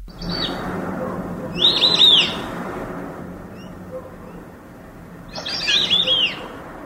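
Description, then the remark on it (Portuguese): White-faced whistling duck calls: two bursts of high, clear whistled notes, around two seconds and near six seconds, over a steady low background hum with no talking. “Então, esse é um irerê. É um tipo um pato, né?”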